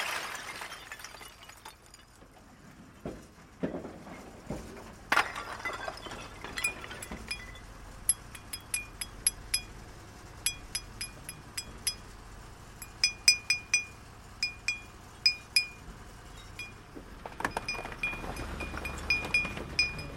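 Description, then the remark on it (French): A hammer strikes a chisel while carving stone, a steady run of sharp, ringing metallic taps, fairly loud. The blows come a little under a second apart, with no one talking. “quand on taille la pierre, il y a déjà du son qui se fait. Euh, le fait de, travailler avec le marteau et le burin, euh.”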